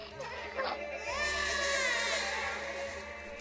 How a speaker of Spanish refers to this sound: Se podía sentir en los rostros sombríos de los guerreros, en el silencio incómodo de las madres, y en el llanto de los recién nacidos.